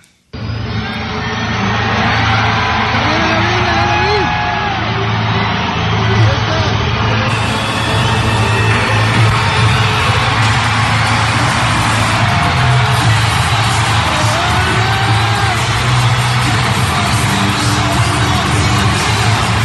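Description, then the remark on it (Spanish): A large crowd in the Chivas stadium in Guadalajara roars continuously at the Saturday presentation of El Chicharito, a dense wash of cheering and murmuring voices that stays loud and steady throughout, with occasional shouts rising from the mass. “Vamos a escuchar un poquito del ambiente de la presentación de El Chicharito el sábado allá en Guadalajara.”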